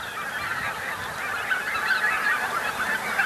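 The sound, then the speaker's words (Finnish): A large flock of barnacle geese, heard in the dark at night, keeps up a dense, continuous chorus of short yapping, bark-like calls, overlapping steadily with no gaps and no voices. “Niin siinä kuuluu tuota haukahtelua, mikä on valkoposkihanhen ääni.”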